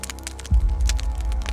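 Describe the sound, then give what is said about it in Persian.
A pile of burning wood in freezing cold crackles with sharp, irregular pops and snaps over a steady low rumble of burning, growing fuller and louder after the first half second. “به کنار کپه آتیش رفتم و دستم و جلوش گرفتم”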